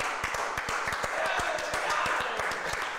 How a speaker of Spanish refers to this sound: Oye, quiero agradecer a nuestros amigos de Guayabo Monterrey. Un aplauso, por favor.